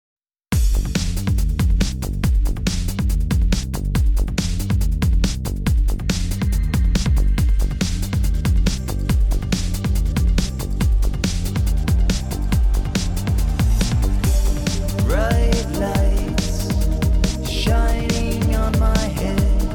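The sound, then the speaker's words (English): A full band song plays loudly and continuously with a steady driving beat, guitars and drenched, reverb-heavy vocals that sound spacious and atmospheric. “And you could really hear the ambience, the reverb, the effects on the vocals, and uh, some of the guitars and instruments.”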